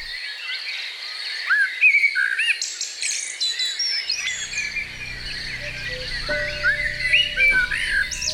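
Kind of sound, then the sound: bird, blackbird singing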